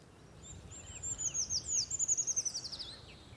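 A Eurasian treecreeper sings a thin, very high-pitched song: a quick descending series of sibilant notes accelerating into a trill, over a low steady background rumble.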